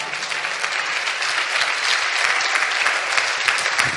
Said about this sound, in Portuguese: Aleluia! Pode aplaudir mesmo a palavra.